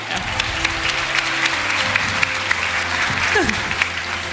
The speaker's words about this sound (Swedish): Så att jag skulle vilja att vi ger de här tre en jättestor applåd så ska ni få kliva ner senare.